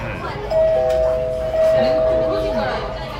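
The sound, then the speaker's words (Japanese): A voice imitates a Japanese correct-answer chime, "pinpon pinpon": two sustained, steady tones, the second slightly lower, repeated twice at moderate volume, with other voices murmuring beneath. “うん、ピンポンピンポン正解です正解が出た正解です”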